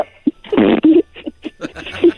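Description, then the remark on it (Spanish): A voice imitates reindeer farting: a long, loud, buzzy raspberry followed by a series of short sputtering bursts, with no speech. “se están echando pedos así”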